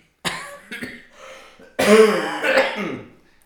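A few short coughs followed by a longer, louder bout of rough throat clearing and coughing, with no talking.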